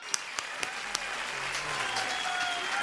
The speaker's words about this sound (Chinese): 我们再一次的用热烈的掌声，感谢他。